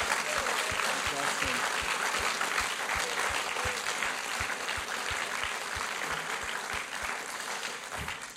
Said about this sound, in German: Ja, komm, lass uns einen grossen Applaus geben.